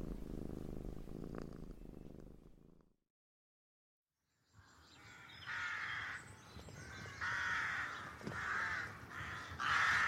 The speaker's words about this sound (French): Familier des sorcières, oiseaux lugubres aux cris rauques, associés à la mort, les corbeaux n'ont pas vraiment bonne réputation.